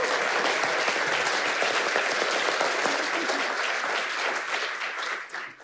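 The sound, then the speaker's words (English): An audience claps steadily in a dense, sustained round of applause that holds level for several seconds before starting to thin out and fade at the end. “I think we should maybe just give her a wee round of applause.”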